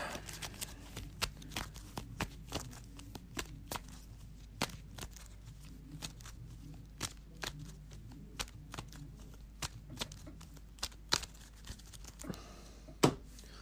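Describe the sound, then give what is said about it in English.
The encounter discard pile being shuffled into the encounter deck during a card game, a steady run of sharp papery snaps and riffles repeating irregularly for several seconds, quiet overall with no voices. “Shuffle the encounter discard pile into the encounter deck, and then spawn one of the set aside brood of Yogg-Sothoth enemies in a random area if able.”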